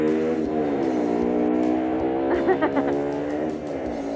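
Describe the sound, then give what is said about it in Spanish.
A loud, noisy motorcycle engine drones steadily outside as typical small-town street noise, its rasping, buzzy exhaust note rising briefly as it revs and passes, then fading slightly. “Ah, eh, motos pedorras, ah, eh, eh, oye, escuchen, escuchen ese ruido ambiente.”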